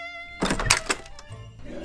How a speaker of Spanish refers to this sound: Exhalando un largo suspiro, cerró la puerta de su casa.